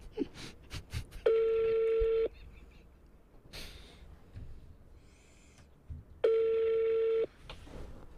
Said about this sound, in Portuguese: Ninguém atende, pô. pessoal não costuma mais atender o telefone.